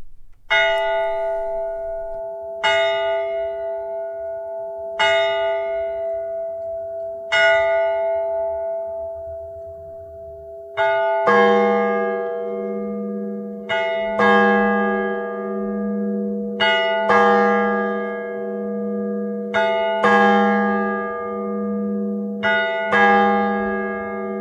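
A clock bell rings four slow, evenly spaced strikes, then a deeper bell joins and tolls steadily, each loud, resonant stroke ringing on into the next, with no voices present.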